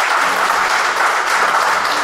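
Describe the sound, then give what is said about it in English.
A room full of people claps steadily to give the Lord a hand, a dense, continuous wash of applause that holds at the same loud level for the whole stretch, with no voices standing out. “Give the Lord a hand clap for being so gracious to us today.”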